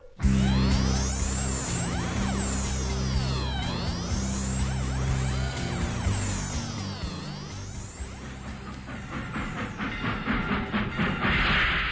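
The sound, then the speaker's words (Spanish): A small, toy-like train rumbles steadily along the rails as it brings passengers to a station, with sweeping metallic squeals rising and falling overhead and a hiss of steam near the end; no one speaks. “la mañana siguiente, un pequeño ferrocarril que parecía de juguete les dejó en la estación de Amazhuac.”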